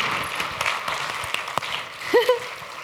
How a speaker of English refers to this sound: And that deserves the clap. Yay!